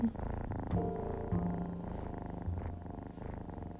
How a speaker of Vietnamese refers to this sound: hai con mèo của mình cũng đang ngủ nữa nó đang kêu gừ gừ đi không biết có vô cam không à